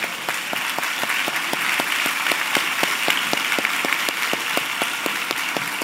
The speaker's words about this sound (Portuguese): Hoje é o dia das mulheres. Tem uma mulher do seu lado? Dê uma salva de palmas para ela.